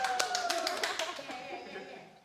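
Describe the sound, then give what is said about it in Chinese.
A concert audience claps in a dense patter of overlapping hand claps that thins out after about a second. A faint murmur of voices runs underneath. “鼓掌声，谢谢。”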